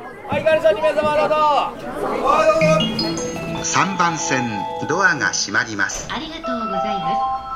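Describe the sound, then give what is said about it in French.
Overlapping voices chatter continuously in a cramped, busy tiny eatery in a Tokyo alley lit by red lanterns, where Japanese people in suits squeeze in to eat meat skewers and ramen and drink beer; a lively babble with no single speaker standing out, while a faint melodic tone threads through the background. “Les Japonais viennent en costume se serrer dans des échoppes pas plus grandes qu'un mouchoir de poche.”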